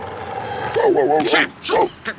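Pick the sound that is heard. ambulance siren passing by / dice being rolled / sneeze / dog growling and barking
dog growling and barking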